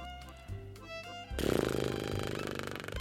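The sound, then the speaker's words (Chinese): A soft tonal background gives way to a loud lip trill exhale in a breathing exercise, breath blown out between the lips while vibrating them to release built-up pressure, a rough, steady fluttering buzz held for almost two seconds. “从嘴唇中间吐气，同时震动嘴唇，释放身体里面累积的压力，就像这样”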